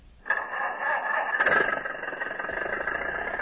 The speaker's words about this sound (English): And he laughed as he drove in his car up the beach.